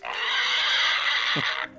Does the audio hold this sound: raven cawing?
no